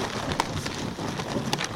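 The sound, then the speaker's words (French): A sled drawn by reindeer glides over snow, making a steady hissing, crunching rush with a couple of sharper knocks, continuous, with no voices. “c'est bien le bruit d'un traîneau quand un renne avance.”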